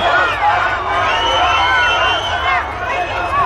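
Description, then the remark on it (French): Dense crowd hubbub, many overlapping voices shouting and chattering, a loud continuous clamor of a packed throng pressing around Jacques Chirac as he tries to push through the crowd in Bourges during the 1995 presidential campaign. “Chirac chahuté, Chirac tente de fendre la foule, Chirac superstar malgré lui.”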